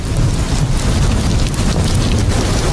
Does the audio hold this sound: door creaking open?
no